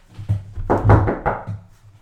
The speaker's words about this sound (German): Ach, warte mal, es klopft.